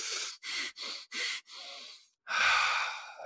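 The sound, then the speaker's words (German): Four quick, forceful breaths in a steady rhythm, then a longer draw, a brief pause and one big, loud exhale, with no talking; deep breathing done to energize before letting go. “ja, also so ein paar Mal tiefer zu atmen, um sich zu energetisieren und dann loszulassen.”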